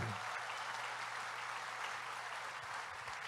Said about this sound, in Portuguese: Um parênteses de 30 segundos e vocês vão dar uma salva de palmas.